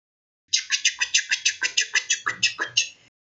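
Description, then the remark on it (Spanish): A voice imitates a train with a rapid, steady run of about a dozen breathy, hissing chugs lasting roughly two and a half seconds before stopping abruptly, with no other talk. “Ese ruido representa un tren.”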